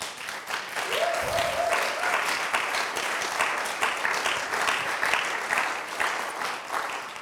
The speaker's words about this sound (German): Lass uns mal Gott dafür einen Applaus geben.